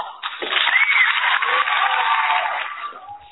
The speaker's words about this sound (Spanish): el aplauso correspondiente.